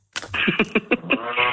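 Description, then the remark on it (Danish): A swivel chair creaks and squeals as someone turns it, a fairly loud drawn-out squeak with a quick run of rhythmic groaning pulses, heard alone with no talking. “Nej, det var min stol, jeg drejede på.”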